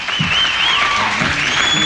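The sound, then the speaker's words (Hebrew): Steady, dense applause from a concert audience as a singer invites another singer onto the stage, a continuous loud wash of clapping with a few high whistles gliding over it. “… מזמין את החבר הטוב שלו, אז עדיין בחיים את …, שעולה לבמה לכל מחיאות הכפיים.”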